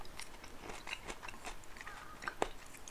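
Steady chewing with soft wet crunches and irregular clicks as someone eats leftover homemade hot pot from the previous day, one slightly sharper bite near the end, and no talking.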